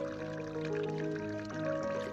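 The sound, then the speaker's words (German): Watery drips and trickles ring out as sustained musical notes, forming a piano-like melody over a steady liquid background, even in loudness, with no one speaking. “Hey, spielst hübsch auf deinem Wasserklavier, mein Freund.”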